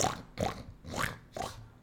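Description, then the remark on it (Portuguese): A person imitates a pig with four rough, snorting grunts in a steady rhythm, fairly loud, with no other talking. “E tem, você tem que fazer o barulho do porco? Tem que fazer para dar realismo.”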